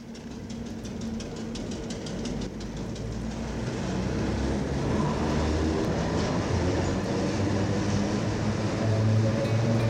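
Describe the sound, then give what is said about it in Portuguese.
An electric tram rumbles along its rails with a steady low mechanical drone and faint metallic clicks, growing slightly louder midway, without any voices. “O ruído dos elétricos passou a pertencer aos ruídos da cidade, até à invenção dos automóveis e dos autocarros.”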